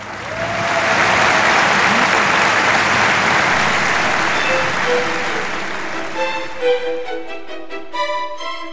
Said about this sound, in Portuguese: Naquela manhã de domingo do 17º Congresso Comunista, a 28 de novembro de 2004, os militantes aplaudiram de pé o novo secretário-geral do partido.